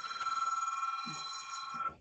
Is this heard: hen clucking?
no